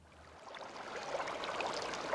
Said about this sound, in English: This is a fish shop. Tanks full of various fish and shrimps waiting to go to their forever homes.